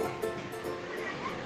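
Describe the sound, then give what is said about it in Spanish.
A steady, rushing wash of sea waves on the island of La Gomera in the Canary Islands fills the background, a continuous surf noise at moderate level with no clear individual breaks over the short stretch. “No sé si oyen el sonido del mar de fondo.”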